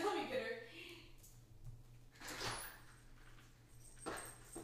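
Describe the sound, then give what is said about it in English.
A dog whimpers softly in short, high-pitched bursts, with some shuffling and a low steady hum in the background. “it's her dog.”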